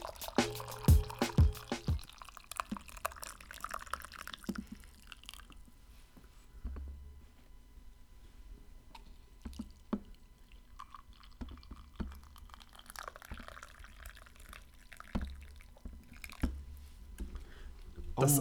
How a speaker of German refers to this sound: Eingießen an sich ist schon eine Kunst, dass es so einen schönen Ton macht. Ja, das ist. Das habe ich jetzt schon 13 Folgen lang geübt. Das ist ein Skill an sich, den muss man sich erstmal erwerben.